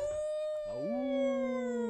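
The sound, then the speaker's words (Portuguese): People imitate wolf howls: a high, steady sustained howl is joined midway by a lower voice that slides upward and holds, the two long tones overlapping, fairly loud. “Ótima sonopla sonoplastia de lobos”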